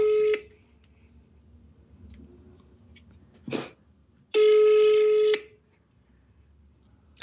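An outgoing phone call rings out: steady, mid-pitched ringback tones, one clipped at the start and a full one-second tone a few seconds later, with a brief noisy burst in between.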